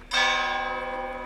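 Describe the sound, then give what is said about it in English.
A single church bell strikes with a bright, clear clang, its rich ringing tone holding and fading slowly, rung to signal the end of a funeral service. No voices are present. “An hour later, church bells rang out, signaling the end of the service.”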